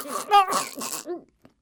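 A voice acts out a snake rattling, coughing and gagging as if choking, a quick run of harsh, throaty bursts that trails off into silence after about a second.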